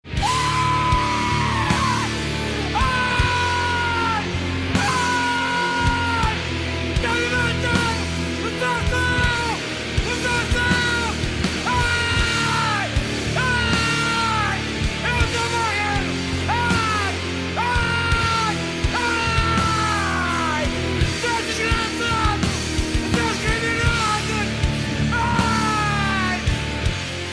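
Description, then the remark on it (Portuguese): A man screams in drawn-out, anguished bursts as if being tortured, over and over, layered on top of loud, dense heavy music that never lets up. “Que é só o cara gritando. o cara sendo torturado.”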